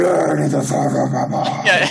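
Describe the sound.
A voice makes a harsh, growling, garbled noise with raspy hissing and a few popping catches, imitating a demon speaking. It's loud, lasting about two seconds.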